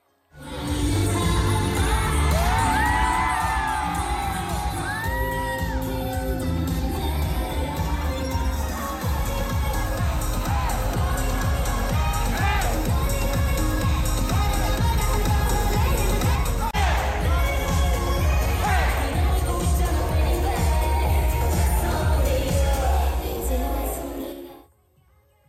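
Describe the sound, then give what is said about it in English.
A large concert crowd roars and cheers continuously as a girl group takes the stage to perform its opening set, with shrill screams rising above the din and a steady booming rhythm underneath, loud and sustained before cutting off abruptly. “to rambunctious applause, the girls took the stage to perform their opening set”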